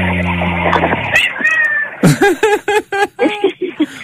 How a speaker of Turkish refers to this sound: o şey mi sokaktan eve gelen bir kedi mi o? Ee, yani bebekliğinden beri bizde e, evde doğmuş kedi aslında.